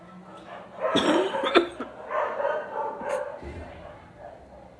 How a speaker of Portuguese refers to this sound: eu tô com uma tosse chata.